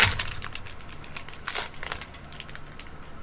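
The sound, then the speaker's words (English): Crunchy chewing of a thin, brittle stroopwafel, a quick series of dry, crackling bites and crumbles that are loudest at the start and again in a brief burst midway, then trail off. No voices. “We're going to have to just eat them, chomp and chew.”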